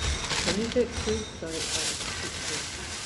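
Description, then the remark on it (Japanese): Scratchy rustling fills the whole stretch in uneven bursts, loud enough to bury the faint, muffled voices talking underneath. “ガサガサして話聞こえなくなるから。”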